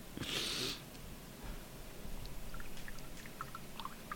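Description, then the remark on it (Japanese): A stray cat in spring mating season lets out a short, loud, strained yowl near the start, then the scene quiets to a low outdoor hum with a few faint, scattered chirps. No one speaks. “野良猫のいやらしい声うるさいよ 春ですね春ですね”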